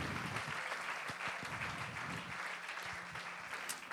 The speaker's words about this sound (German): Acht Leute kurz, wo, wo seid ihr? Ein mega Applaus für unsere acht, oder? Die Helden, die Helden des Tages.